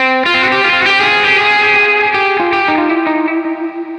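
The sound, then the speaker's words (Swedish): A distorted electric guitar plays sustained notes through a delay, with low-pass and high-pass filtered, driven repeats piling up into a dense wash that thins and flutters away near the end. No one speaks. “Eh, både low pass och high pass och knycklar ihop det på ett coolt lite drive.”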